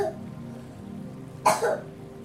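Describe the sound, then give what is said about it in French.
A young boy, napping just behind the speaker, coughs a couple of times, two quick muffled bursts against a quiet background with a faint low hum. “Désolé pour cette tousse et mon fils qui est juste derrière. Je m'attendais pas à ce qu'il tousse.”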